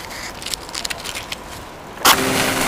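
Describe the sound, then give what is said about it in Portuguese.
A match taken from a box is scraped against a wall several times in quick, scratchy strokes, crackling and sparking, then catches with a sudden loud whoosh and settles into a steady hiss of burning. “Como estalou e faiscou, antes de pegar fogo, surgiu uma luz bem clara e parecia mesmo uma vela quando abrigou o fogo com a mão.”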